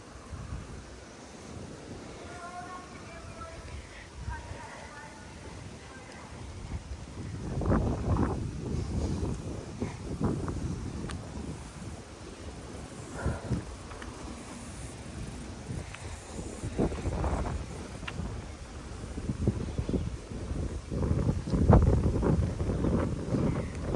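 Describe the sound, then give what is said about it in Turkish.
Wind buffets a microphone outdoors in low, rumbling gusts that swell and fade, with a brief faint whistling tone early on and no talking. “Umarım rüzgarın sesi çok fazla rahatsız etmiyordur sizi.”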